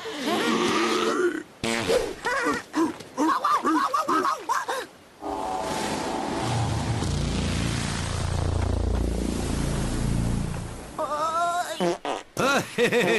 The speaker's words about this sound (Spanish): ¡Pedos lagarteros! ¡Pedos lagarteros! ¡Pedos lagarteros!